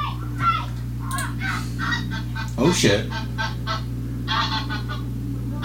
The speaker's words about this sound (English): Yeah, if you watch, it flies in from the side of the house. And the goose is like freaking out. It sees it.